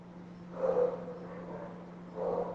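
A small dog lets out two short, muffled barks about a second and a half apart, fairly faint, over a steady low electrical hum.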